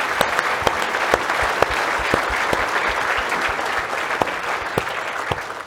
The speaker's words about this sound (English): Can we just put our hands together